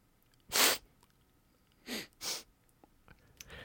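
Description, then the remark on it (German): Three sharp, breathy sniffles: one loud sniff, a pause, then two quick ones back to back, followed by a faint trailing snuffle. Nobody speaks. “Halt, da, halt, ich möchte ein Schniefen von euch beiden wenigstens hören.”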